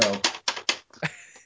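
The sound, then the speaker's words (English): Several sharp hollow taps on the hard plastic of a game console's empty memory card slot, a quick run of four evenly spaced knocks followed by a few softer, irregular taps, with no talking. “Here's the sound of where it should”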